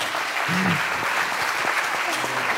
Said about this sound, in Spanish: Bueno, le damos un fuerte aplauso